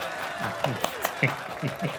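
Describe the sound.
Brief applause for 'our selection': a handful of sharp, evenly spaced hand claps pop out over a steady hiss while voices keep talking underneath.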